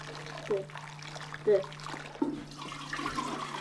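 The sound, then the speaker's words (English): Water is poured and splashed in a few short bursts while washing hair, with a trickling sound between them over a steady low hum. “When it comes to washing hair, two, maybe three of them will all use the same water.”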